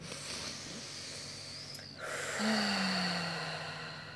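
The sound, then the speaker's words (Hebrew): Slow, deep breathing by a woman with her eyes closed and ears covered, in front of children: a long airy inhale, a brief pause, then a fuller, louder breath that gradually trails off, with no talking. “אני עוצמת עיניים, סוגרת אוזניים, ונושמת עמוק, וכשהאוזניים סגורות, אטומות, זה כמו כזה בים, שומעים את עצמנו בפנים. אז אני שומעת את הנשימות שלי.”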